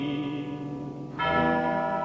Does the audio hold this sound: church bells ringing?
yes